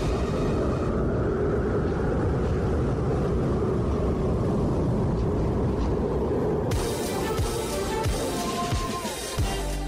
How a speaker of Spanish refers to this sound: Así se escucha el fuerte viento, la tormenta invernal que se vive en Estados Unidos.